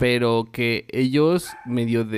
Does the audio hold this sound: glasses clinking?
no